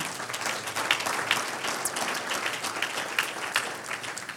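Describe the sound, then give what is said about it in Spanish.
Steady applause from an audience, a dense crackle of many hands clapping at once, sustained at an even loudness for several seconds with no one speaking over it, given as applause for the Lord during a preacher's sermon. “Un aplauso al Señor.”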